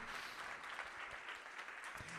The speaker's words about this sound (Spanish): ¿Alguien le da un aplauso al Señor que quiera ver liberación en su mente?